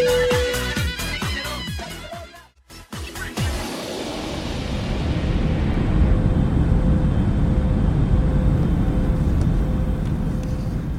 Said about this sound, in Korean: 미국 라스베이거스로 향하는 비행기 안에 있습니다. 비행기 출발한 지 6시간 정도 지나서 지금 저녁 식사를 마치고 승객들이 모두 잠이 든 상황인데요. 어둠 속을 비행하는 고요한 비행기 안의 분위기 뭐랄까 정말 아 제법 낭만적입니다.